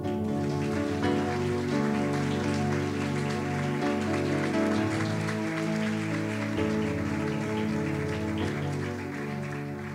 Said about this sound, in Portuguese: Você recebe isso? Dê um aplauso ao Senhor.